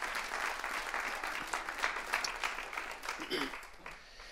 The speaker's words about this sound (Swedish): Välkommen hörni. En applåd.